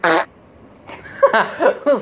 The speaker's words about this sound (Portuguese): é literalmente um peido.